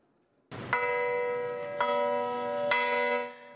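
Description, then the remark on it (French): Three bronze church bells, brought from Normandy, ring at Notre-Dame de l'Heure in Mosul in the presence of UNESCO director-general Audrey Azoulay: three loud strikes, about a second apart, each leaving a rich, shimmering hum that overlaps the next before fading. “À Mossoul, trois cloches de bronze venues tout droit de Normandie ont sonné en présence de la directrice générale de l'UNESCO, Audrey Azoulay, à l'origine de cette initiative.”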